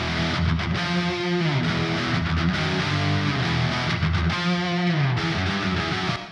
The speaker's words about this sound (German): Zusammen klingen die beiden Gitarren dann so, jeweils mit ihrem Kreuzhall draufgelegt.